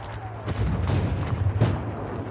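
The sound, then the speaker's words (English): Artillery shells burst over a continuous low rumble, with two loud, sharp blasts about a second apart and a steady roar of fire filling the gaps. “For this evening, we're taking you to a place of exquisite beauty, a place where dreams are made and hearts are broken, a place where the only sound is that of artillery shells shattering and where the only scent is that of burning flesh and fuel.”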